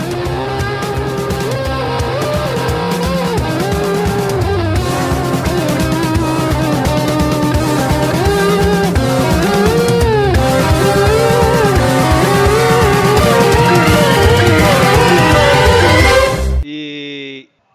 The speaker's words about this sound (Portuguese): Cara, apareceu o carro do, do ovo aqui do nada, à noite. Como assim, velho? É, é, é, aquele que canta tem a musiquinha da galinha fica.